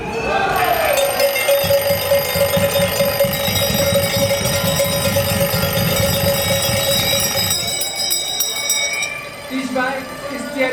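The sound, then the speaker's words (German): A crowd of alarm clocks rings at once at a protest by demonstrators in Bern, Switzerland, on 9 March: a loud, dense, continuous jangle of overlapping bells with voices murmuring underneath, before the ringing thins out and drops away near the end. “Gut, alle Wecker parat.”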